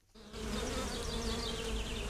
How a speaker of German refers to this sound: Zwei Bienenvölker fliegen schon wieder emsig.